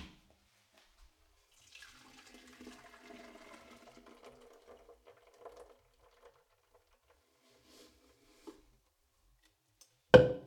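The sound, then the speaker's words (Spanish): A thick blended almond-and-water mixture is poured into a plant-milk straining bag set inside the storage jug, giving a soft, quiet trickling splash for a few seconds. After a pause, a sharp clunk sounds near the end. “al terminar de licuar la primera tanda, coloco la bolsa para colar leche vegetal dentro de la jarra donde voy a almacenar la leche y vierto la mezcla dentro de ella.”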